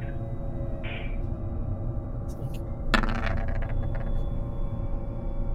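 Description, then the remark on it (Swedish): Dice are tossed onto a hard table, a single sharp clatter that rattles briefly and settles within about a second, over a steady low background hum. “Jag vill nu att du slår en lack här”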